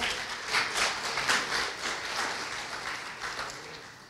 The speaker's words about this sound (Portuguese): Vamos aplaudir o Senhor porque Ele é bom.